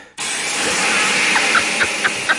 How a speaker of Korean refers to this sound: 때마침 화장실 안에서 갑자기 샤워기 물소리가 들리더군요. 아, 밖에 상황을 예의주시하던 아내가 얼른 샤워기를 튼 거였죠.